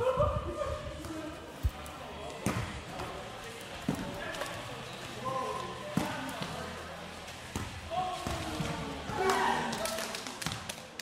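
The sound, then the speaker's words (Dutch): Sharp ball thuds ring out every second or two, irregular and echoing in a sports hall during a volleyball match, over a steady murmur of crowd chatter and voices. “En ik mocht een volleybalwedstrijd bijwonen.”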